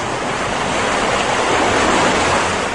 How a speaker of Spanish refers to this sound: Recuerden, el viento era muy fuerte. Y las olas muy altas